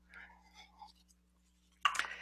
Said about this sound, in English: Um, bear, bear with me one sec. Let me get a sip of water here.